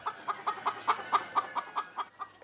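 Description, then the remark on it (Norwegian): Organic laying hens clucking in an outdoor area planted with young trees in Skjeberg, Østfold, Norway, in a steady, rapid series of short calls, about a dozen in a couple of seconds, with no voices. “for å bygge opp norsk kompetanse på utforming av uteareal for økologiske verpehøner.”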